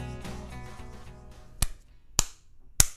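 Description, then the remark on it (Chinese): Three sharp, loud self-inflicted slaps to a person's own face land roughly half a second apart, each a crisp smack standing out on its own after a stretch of music fades out. “刚刚那个是我自己赏巴掌的声音啊！”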